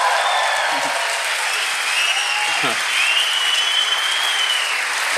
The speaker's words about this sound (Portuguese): Minha mãe tá aqui hoje, uma salva de palmas pra minha mãe, tá em algum lugar aí.